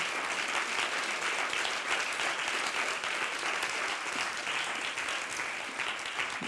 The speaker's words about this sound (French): Marie, vous pouvez revenir, on va vous applaudir à nouveau parce que c'était vraiment magnifique. Revenez, revenez dans la lumière. Bravo.